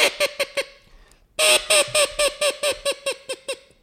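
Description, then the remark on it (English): A teal duck call mimics a blue-winged teal hen: four quick nasal quacks, a brief pause, then a rapid descending run of about ten quacks that trail off, loud with no talking. “That is a blue wing teal hen right there.”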